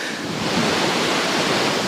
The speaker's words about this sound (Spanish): para que los oyentes escuchen a las olas como rompen aquí, vamos, es que estamos sobre el mar estirados en, un, en una tumbona, además acolchadita. Exacto, estás aquí en, en una cama de prácticamente 2x2, eh, a orillas del mar, eh, escuchando el mar